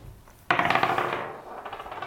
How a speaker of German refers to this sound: würfelt die 5. Nicht die drei. Die drei.